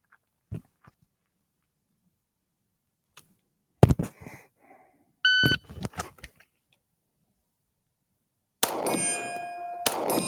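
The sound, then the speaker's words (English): A shot timer gives a short electronic start beep partway through a timed handgun drill from the holster with a 10-round magazine, mixed among sharp metallic clanks and impacts, with a longer ringing, clattering stretch near the end. “On the timer, you're going to hear the beep.”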